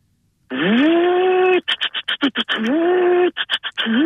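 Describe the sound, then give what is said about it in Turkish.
Someone vocally mimics a Hilti hammer drill: a sustained buzzing drone that rises in pitch, then breaks into a rapid series of short stuttering bursts, repeating the pattern, loud. “Hilti sesi”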